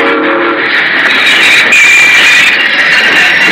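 A loud train grinds along with a steady metallic roar, high brake squeals whining over the rumble as it slows toward a stop.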